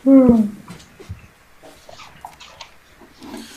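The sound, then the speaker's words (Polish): Dogs outside: one gives a sharp, loud yelp at the start, followed by softer, scattered whimpers and scuffling noises that trail off. “usłyszałaś jeszcze pisk i skowyt zwierząt na zewnątrz”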